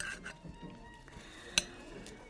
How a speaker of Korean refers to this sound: 사실 이런 데 들어와서 부르주아처럼 칼질하는 것도 우습긴 하죠.